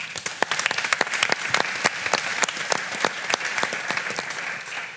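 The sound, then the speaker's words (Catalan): A crowd applauds the Iguana Teatre theatre company steadily for several seconds, many hands clapping in a dense, sustained patter with sharper individual claps poking through, and no voices over it. “Un fort aplaudiment per ells.”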